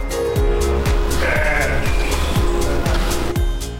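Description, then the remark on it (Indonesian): Sheep bleat over a steady, loud background rumble, with a regular thumping rhythm running through it; several animals at a farm with more than 600 sheep that supplies a restaurant in Sleman, Yogyakarta, with no talking. “Di peternakan milik Adam Ayodia ini, ada lebih dari 600 ekor domba.”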